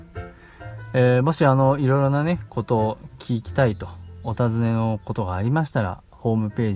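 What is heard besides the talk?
cicadas singing outdoors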